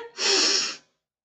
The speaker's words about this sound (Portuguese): Então, respirando fundo, respiração Ra é ó, segura, respira.